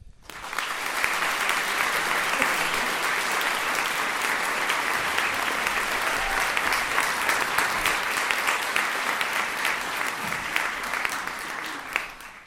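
Loud, sustained applause from an audience, a dense wash of many hands clapping at a steady level for about eleven seconds before tapering off at the end.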